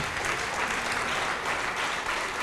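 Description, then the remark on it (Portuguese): A church audience applauds God steadily during a worship service, a dense, continuous wash of many hands clapping at an even level throughout, with no voices standing out. “Isso, vamos aplaudir muito ao nosso Deus.”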